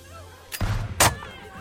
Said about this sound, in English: Gunshots ring out inside the room, almost in response to your knocking.